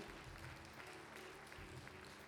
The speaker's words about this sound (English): Why don't you give the Lord a great round applause of praise? Amen.